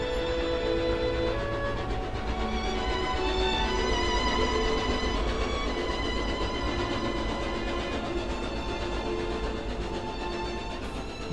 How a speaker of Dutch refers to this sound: Net voor middernacht komt er een trein aan in IJsden. Het Nederlandse grensdorpje waar al ja, meer dan twaalf uur lang de Duitse afgezette keizer stond te wachten op een mogelijke asielverlening door het neutrale Nederland.